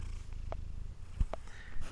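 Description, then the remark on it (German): A domestic cat named Mieze purring as she lies down, a soft, steady low rumble with a faint pulsing rhythm, broken by a couple of brief clicks or rustles, with no voices. “Das ist das Schnurren von Mieze.”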